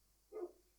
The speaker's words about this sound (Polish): Na 200% będziecie słyszeć dzisiaj, jak za oknem szczeka mój pies. Ma na imię Knockout i jest nieproszonym gościem dzisiejszego odcinka.